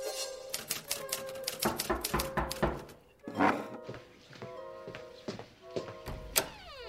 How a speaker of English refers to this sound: I could hear you typing from down the hall.